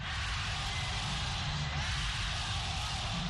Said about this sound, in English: Loud cheers from thousands of people for Prabowo Subianto as he greeted supporters in a local sports arena.